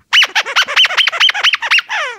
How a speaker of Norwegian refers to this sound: Nei, det høres veldig riktig ut. Ja. ja. Jeg føler også at jeg gjenkjenner den lyden fra, fra hunden vår når han driver og leker med ting. Men, eh, men, dere vil til og med si at det er en kyllingpipeleke. Den er gul.